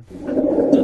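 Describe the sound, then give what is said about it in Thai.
A low, rumbling, snore-like continuous sound of rhonchi through a stethoscope, steady and fairly loud for just under a second, with a coarse rattling texture and no voices. “อันนี้เสียงลองคายอีกยี่ห้อนะลองฟัง”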